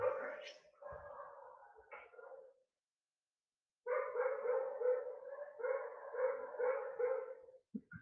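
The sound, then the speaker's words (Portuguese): A dog barks rapidly and continuously in two long bouts separated by a short silence, its barks blurring into a steady, somewhat muffled din. “O cachorro latindo pra caralho, mano.”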